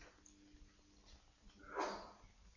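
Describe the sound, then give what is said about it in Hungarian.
A single short sneeze, a soft breathy burst that rises quickly and fades within a fraction of a second, heard faintly against a quiet, hissy background with no talking. “Egészségedre.”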